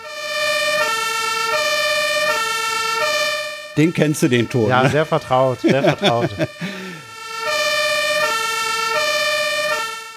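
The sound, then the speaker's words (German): A loud two-tone compressed-air fire engine horn siren alternates between high and low pitches, stops while people talk and laugh briefly, then resumes with the same steady back-and-forth wail. “Du hattest mir im Vorgespräch gesagt, das sei Druckluft im Gegensatz zur Polizei.”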